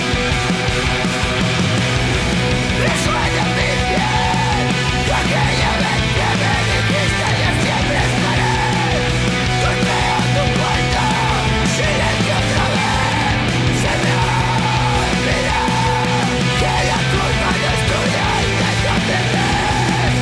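A loud, dense post-hardcore track by a Barcelona quintet plays throughout, with heavy distorted instruments and a driving beat under shouted, screaming vocals that rise and fall in short phrases.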